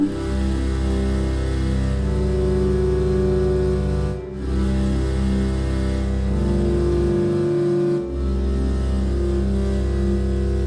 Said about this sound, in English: It's called the Ondes Martenot. I probably butchered that. It's French, um, but it sounds like. Oh, I can uh, tell by your accent it's French. it's Ondes Martenot. Mademoiselle. Uh, so it sounds like this.